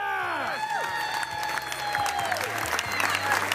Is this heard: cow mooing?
no